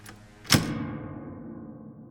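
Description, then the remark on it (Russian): A key turns in a door lock with one sharp metallic clunk, locking Howell in as a prisoner in the town of Ellenton, New Hampshire. It rings out briefly, then all settles into quiet. “Хауэлл услышал, как в замке повернулся ключ.”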